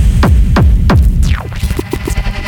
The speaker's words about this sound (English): We need to do a test of all our sounds. Are you ready? Are you ready? Ready? Testing the kicks.